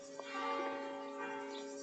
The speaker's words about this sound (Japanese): であ12時の鐘ですね